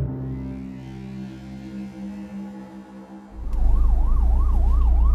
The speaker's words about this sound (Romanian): Dintr-o dată aud fiecare ambulanță care mă depășește în mers